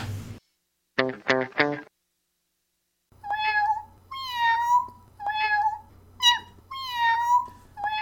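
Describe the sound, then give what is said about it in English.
A cat meows repeatedly in the Gumby Cat Productions sign-off, five or six drawn-out, slightly processed-sounding meows in close succession over a low steady hum, preceded by a few quick chirpy bursts. “Gumby Cat Productions. Podcasts for podcast people. Meow.”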